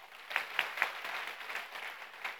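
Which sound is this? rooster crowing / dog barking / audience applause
audience applause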